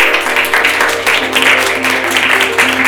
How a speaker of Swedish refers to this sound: Så en applåd.